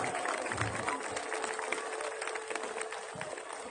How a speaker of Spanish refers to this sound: Felicidades a todos. Fuerte aplauso para la licenciada.